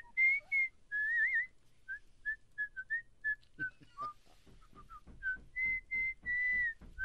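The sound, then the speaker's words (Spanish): Someone whistles a lively tune, a run of short and drawn-out clear notes, with a faint low rumble joining underneath partway through. “¿Por qué está chiflando, maestro?”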